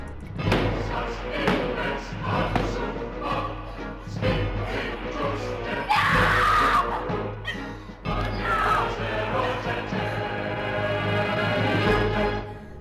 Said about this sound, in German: Ich bin nach der Dunkelkammer runtergerannt und habe versucht, aus der Haustür zu entkommen, aber die ist verschlossen und Adrian hämmert nur mit den flachen Händen dagegen und gibt dann einen verzweifelten Schrei von sich.